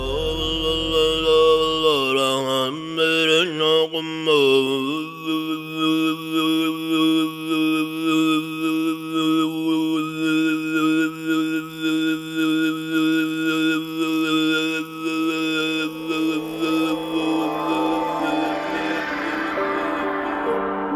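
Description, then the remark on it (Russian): Tuvan throat singing in the lip-rolled borbangnadyr style, very intermittent, its rolling sound made by constantly closing and opening the lips: a steady low drone with bright whistling overtones, fluttering and pulsing at first, then holding on one long, unbroken tone with no talking. “И пятый стиль – бурбанадыр – очень прерывистый.”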